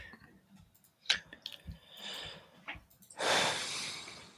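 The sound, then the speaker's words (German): A strained snorting breath: several short nasal puffs and sniffs build up, then end in one long, heavy, noisy exhale. No one speaks. “ich dachte, das war so ein Einatmen, um noch was zu nee, sagen, aber es nee, war nur glaub, ein, nichts, ein, angestrengtes, ein angestrengtes Schnaufen.”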